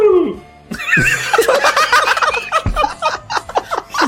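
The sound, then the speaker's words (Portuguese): A voice does a loud, warbling turkey gobble, a rapid fluttering call lasting a few seconds, with some laughter mixed in near the end. “Como o Peru diria, né?”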